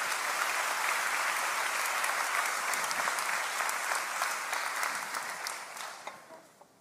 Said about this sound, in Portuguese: Obrigado, meus amigos. Aplauda o Senhor por essa Trindade maravilhosa.